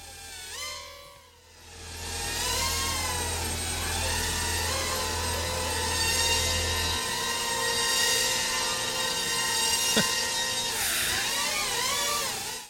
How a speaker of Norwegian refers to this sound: Jeg er ganske sikker på at det er en drone. Du er ganske sikker på at det er en drone, sier du? Ja. Det er helt riktig, det!